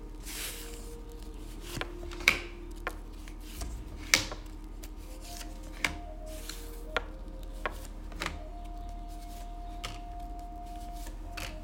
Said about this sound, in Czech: já už se dívám na vaši fotku, míchám u toho karty a my se spolu podíváme, co nám Tarot poví o vás dvou.